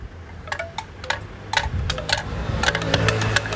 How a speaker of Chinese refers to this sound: 诶，这什么声？ 竹片风铃。